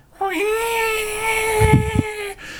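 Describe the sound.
A person voices a single long, sustained wailing cry, steady and loud, imitating the fetalien's drawn-out cry as its head emerges from Jack's body, for about two seconds, with a couple of low thumps near the end before it cuts off.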